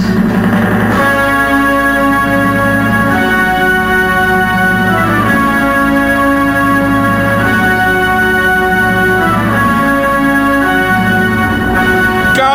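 A loud, full orchestral opera overture plays on its own as the theme of a weekday Brazilian radio program aired at 7 p.m. Brasília time, with sustained brassy chords swelling in repeated phrases and no voices.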